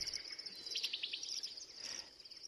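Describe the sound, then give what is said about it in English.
Birds sing in a steady, high-pitched chorus of trills, with a quick run of sharper chirps partway through. The sound is soft and continuous, with no voices. “I'm Joel Parker, and this is some soothing sounds of birds before we go into part two of this interview on noise pollution.”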